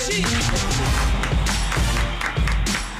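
A crowd in a studio breaks into steady, dense, warm applause welcoming a marketing executive of Heineken in Brazil, many hands clapping together in a continuous, loud wash that holds for the full three seconds.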